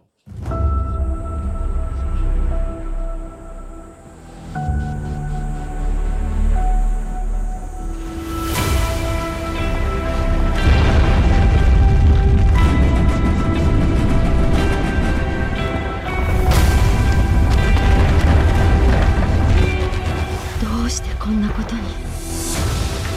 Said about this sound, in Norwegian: Så det du hørte i starten av denne traileren, det var lyden av et stort jordskjelv. Å oh, ja. Yes. Dramatisk. Meget dramatisk.